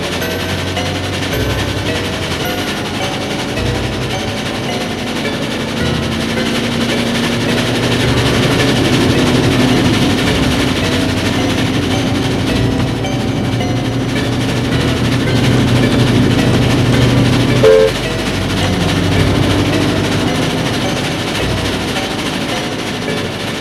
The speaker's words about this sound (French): Il est seul dans son compartiment. Le bruit du train, la fatigue l'endorme d'un sommeil profond.